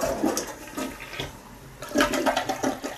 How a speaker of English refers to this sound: oh, I'm gonna flush my shit down the toilet now.